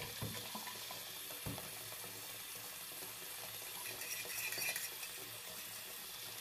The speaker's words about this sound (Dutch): Dat is zo'n borstel, zo'n een, een, een flessenborstel voor in die, voor die thermos. En het is ook zo'n te klein mondje eigenlijk, om er deftig in te kunnen.